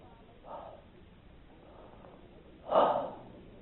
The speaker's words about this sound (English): When they saw these cloven tongues like as a fire and it sat upon each, you know what the twelve did? They breathed in like this.